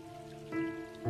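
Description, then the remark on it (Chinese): Raindrops pattering steadily on a surface, a soft continuous wash with a few brighter taps and a faint tonal hum beneath, no voices present. “雨轻柔的一语呢喃在心头，雨滴落的声响徜徉在耳际，雨泛起的喜悦轻跨在脸颊。”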